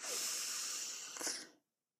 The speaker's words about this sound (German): Lass uns nochmal tief atmen.